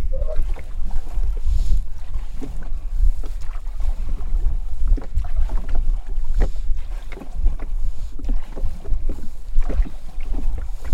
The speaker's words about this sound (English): who is paddling his small ringy dingy rowboat.